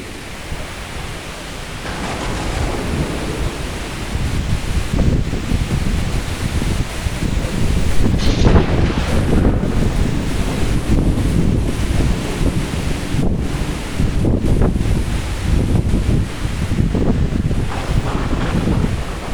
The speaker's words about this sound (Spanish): voy a grabar los sonidos de una tormenta, de un vendaval que está aconteciendo justo en ese momento, siendo la 1.02 pm. Escucha esto, profe, se estaba llevando la ropa del balcón.